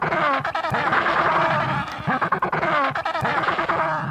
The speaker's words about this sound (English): Believe it or not, this is a penguin. Somehow I thought the penguins made much cuter sounds than that, right?